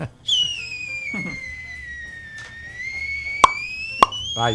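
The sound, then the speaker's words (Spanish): Someone whistles a long, bright tone in imitation of a small toy whistle, sliding gently down then back up, with two sharp popping clicks near the end. “Alguien que diga no a los silbadores, pero que le haga así como el chomito.”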